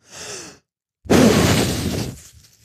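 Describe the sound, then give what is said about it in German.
A soft breathy intake, a brief pause, then one loud, forceful puff blown as hard as possible into a bag from about 10 centimetres away, a broad rushing whoosh lasting about a second before it fades out. No one speaks. “ähm, mach die jetzt hier vorne einfach nur auf mit äh, ein bisschen Abstand, so, sag mal, so 10 Zentimetern, puste ich jetzt so feste wie ich kann in die Tüte rein, ja.”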